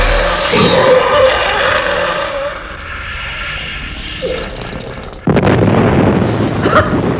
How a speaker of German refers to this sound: Sie explodiert!